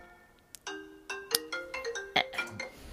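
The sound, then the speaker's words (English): A phone call rings while being dialed, a quick melodic run of bright, chiming electronic notes, about eight in a row. It sounds clear, with no voices. “Uh, let me try his wife, I guess. Er, dialing, ringing.”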